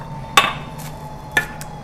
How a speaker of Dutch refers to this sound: Oh ja, ik heb nog een avocado, was ik even vergeten. Dus die spoel ik even om. En ga ik die ook even snijden. Snijden. Snijden.